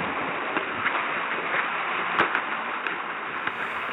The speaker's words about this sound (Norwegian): Og nå kom endelig regnet, som man kan høre ute. Så vi bare håper at det varer lenge.